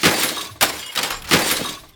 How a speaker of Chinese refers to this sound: 巡丁和青壮拿起城头的灰瓶，纷纷掷下，装满石灰的陶罐落地后崩裂开来，里面的石灰四下发散